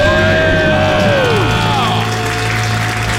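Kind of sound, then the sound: crowd, celebratory screaming and cheering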